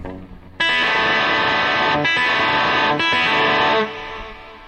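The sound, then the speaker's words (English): A loud, effects-heavy electric guitar chord, played without the low and with finger and fingernail rather than a pick, rings out suddenly and sustains for about three seconds, with a couple of brief dips in the wash of distortion before it fades away. “love playing this chord here. Without the low, though.”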